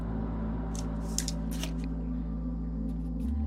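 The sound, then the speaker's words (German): Dice are rolled for a dinosaur-medicine check in a game: they rattle and clatter in a quick burst of small clicks, then a few lighter taps near the end, over a steady low hum, with no one speaking. “Nee, nee, würfel mal auf, auf Dinosaurierheilkunde.”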